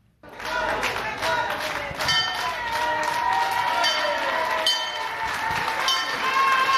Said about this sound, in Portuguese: O som do sino tocado pelo autarca do Porto marcou a reabertura do mercado do Bolhão, entre vivas e aplausos dos vendedores a uma casa renovada.